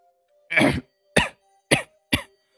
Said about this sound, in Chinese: 烟呛得他一阵咳嗽，一口浓痰泛了上来。